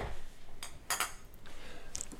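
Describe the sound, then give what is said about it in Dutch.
Glasses clink together in a toast: a few bright, ringing taps, the loudest pair in quick succession near the middle, followed by a lighter chime, with no talking. “En dan zeg ik meteen klinken”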